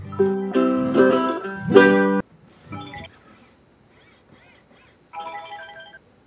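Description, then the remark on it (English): A phone's ringtone plays a loud, bright electronic melody for about two seconds, then returns in two shorter, quieter tonal bursts separated by near silence. “Yeah, your phone's ringing.”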